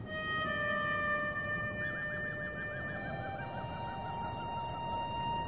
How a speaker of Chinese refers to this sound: 哦，那是口风琴的声音。你不说我都注意不到，但我那种苍凉的感觉我是捕捉到了。